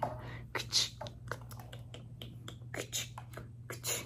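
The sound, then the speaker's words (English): A stapler clicks again and again as papers and a small picture are stapled into a file, a quick irregular run of crisp snaps over a faint low hum. “Just going to staple it right there alongside your file as well as a cute, cute little picture of you.”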